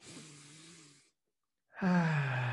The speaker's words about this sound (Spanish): Toma tres respiraciones profundas, por favor. Una. Segunda respiración profunda.